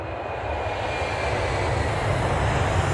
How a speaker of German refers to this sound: Ich habe gerade echt aus dem Fenster geguckt, ob hier ein Flugzeug kommt.